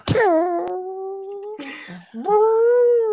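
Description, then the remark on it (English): A voice imitates an elephant's trumpet: two long, loud, nasal blasts, each starting with a breathy burst and then holding a steady, slightly rising tone, with a short gap between them. “It makes the noise of an elephant blowing its trunk.”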